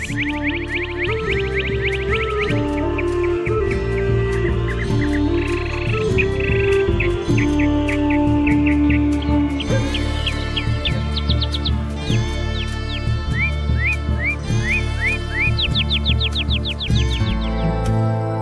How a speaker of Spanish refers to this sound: En esta forma, dicen los calchaquíes, nacieron los cardenales, que así acrecentaron el número de las aves que regalan nuestra vista y deleitan nuestros oídos con las más exquisitas melodías.